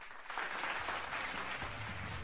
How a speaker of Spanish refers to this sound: Pensé que había puesto los aplausos, pero no.